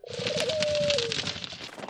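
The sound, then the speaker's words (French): A flock of panicked birds calls out in alarm with a sustained cry over a rush of fluttering wings, busy, as they scatter into the air. “Des branches qui craquent, des rires, le gémissement à peine couvert par des cris d'oiseaux affolés qui s'envolent.”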